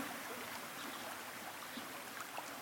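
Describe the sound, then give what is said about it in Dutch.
A small waterfall flows in the distance, below high rocks overlooking a mirror-smooth blue lake surrounded by treetops in the early morning; a steady, soft rushing and splashing of water that stays even throughout with no voices. “Het watervalletje dat stroomt in de verte.”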